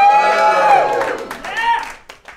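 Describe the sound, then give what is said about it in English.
An audience cheers and shouts loudly after being asked to make noise if they think the right to free speech, especially online, should stay pretty much unlimited. Voices blend into a sustained roar while scattered sharp claps crackle through it, holding steady for a couple of seconds before tapering slightly at the end. “Those of you who feel that way, make some noise.”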